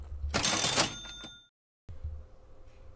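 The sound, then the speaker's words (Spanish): A quick cash register effect: a burst of mechanical clatter ending in a bright, ringing bell chime, followed by a short silence and then a low, steady hum. “y venga la caja registradora que siempre me ayuda.”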